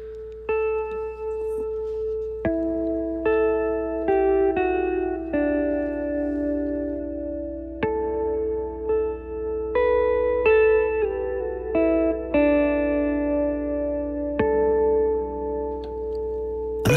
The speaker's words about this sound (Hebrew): שומעים את הגיטרה